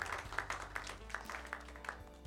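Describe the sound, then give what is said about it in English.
A church crowd claps for Jesus during a sermon in a steady burst of scattered, overlapping hand claps, fairly quiet, with no talking over it. “Clap for Jesus.”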